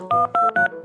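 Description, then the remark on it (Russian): A phone number for the fire service being dialed on a keypad: three short, evenly spaced touch-tone beeps, each a steady two-note electronic tone, clear and fairly loud with no voices. “Так, надо срочно вызвать пожарных Одним нам не справиться Ты, Веснушка, звони в пожарную службу”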